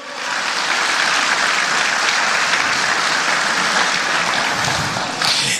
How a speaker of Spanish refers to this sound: Alguien alaba al Señor en esta mañana. Vamos, denle fuerte ese aplauso al Señor.